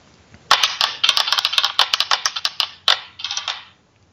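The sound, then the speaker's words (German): A single die clatters and tumbles across a hard surface in a rapid burst of sharp clicks, settles briefly, then rattles again in a shorter roll before going still, landing on four. “Der Würfel hat gesprochen.”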